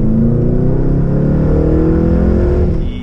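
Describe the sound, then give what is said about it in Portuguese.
The engine of a modified Camaro sports car, a 6.0, revs loudly, its deep growl climbing steadily in pitch for a few seconds before easing off at the end, with no voices. “Já deve ter o vídeo em cima acelerando, a gente acelerando já, carro.”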